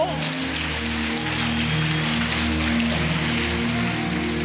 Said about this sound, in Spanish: ¿Alguien allá? Ok, ¿por qué no le damos un aplauso?